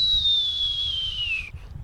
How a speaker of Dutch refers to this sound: Omdat hier zit, zit die spreeuw nu op het dak te zingen.